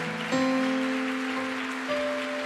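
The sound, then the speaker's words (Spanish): An audience gives a strong applause to the Lord in welcome of newcomers, a steady, dense wash of clapping, while sustained keyboard chords ring out over it, with a new chord entering partway through. “Fuerte ese aplauso al Señor por ellos, por Dios.”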